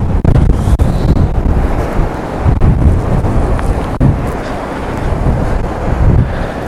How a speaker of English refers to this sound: Right, it's going to get real windy now, so goodbye.